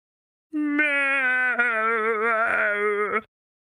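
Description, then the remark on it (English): A person imitates an ankylosaurus call with one sustained, nasal, wavering drone lasting nearly three seconds, fairly loud, with a slight rattle near the end and no other sounds. “quick, what does an ankylosaurus sound like?”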